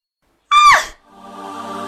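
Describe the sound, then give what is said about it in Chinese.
A woman's sharp, high-pitched scream bursts out suddenly at a dock, lasting about half a second and sliding downward in pitch, then gives way to a steadier, quieter sustained tone. “一声女子的尖叫声在码头回荡。”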